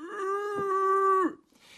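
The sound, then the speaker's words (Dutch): A bull moose, calling to challenge rival males and to signal to females that mating season has come, lets out one long, drawn-out bellowing call, steady and fairly loud with a nasal, moaning tone, before it breaks off with a brief downward slide into quiet. “Dus die eland is daar de looien.”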